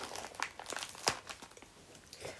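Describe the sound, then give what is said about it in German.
Crinkling of a candy wrapper being opened: a quick series of irregular, bright crackles and rustles with one sharper snap partway through, steady and moderately loud, with no voices. “Ich glaube, da sind Candies drin. Süßigkeiten, weil das Raffel so ist so noch Süßigkeiten was Kleines Süßes.”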